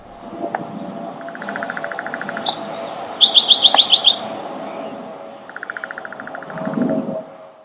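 Birds chirp and trill in the opening credits of Twin Peaks, with rapid high twittering bursts and shorter calls scattered throughout, set against a low ambient hum; no one speaks.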